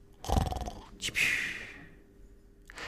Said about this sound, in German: Doch der Dino liegt mitten auf der Wiese und überall auf und an seinem Körper liegen kleine gelbe Küken, die schlafen. Und der Dino schläft auch, leicht schnarchend.